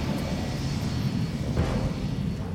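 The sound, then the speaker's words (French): A steady, broad engine roar of a Fléchette 3000 airplane coming down to land gently beside a child in a village square, loud and continuous with a low rumbling body and a brief whoosh midway, no voices. “Le Fléchette 3000 L'avion dit Bond se pose en toute délicatesse à côté de l'enfant sur la place du village.”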